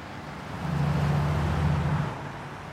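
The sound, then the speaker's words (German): City street traffic rushes past in front of a municipal high-rise on Blumenstraße in Munich: a broad engine hum and road noise swelling to a steady roar before easing off slightly, with no voices. “Vor dem städtischen Hochhaus in der Münchner Blumenstraße rauscht der Verkehr.”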